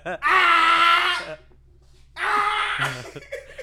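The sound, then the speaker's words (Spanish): A person imitates a ghostly presence screaming in someone's ear, with two loud, drawn-out wailing shrieks, separated by a brief pause, the second trailing off into a breathy moan. Intense. “Güey, te grita en el oído, güey.”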